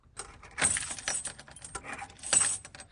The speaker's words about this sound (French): Papa a fermé la porte du magasin à double tour. Clac, clac